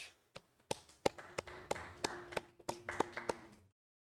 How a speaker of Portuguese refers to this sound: É o Léo Vlad, salva de palmas.